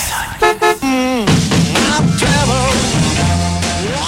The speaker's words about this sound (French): 107.7.7 klaxon, klaxon, klaxon.